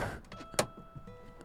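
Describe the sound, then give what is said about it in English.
The back doors of a vehicle parked in the dunes at the edge of a beach are opened towards the ocean, with soft mechanical rattles and scrapes around one sharp latch clunk midway through, and no voices. “I don't know if you can hear the ocean, but I'm pretty much parked in the dunes with the back doors open.”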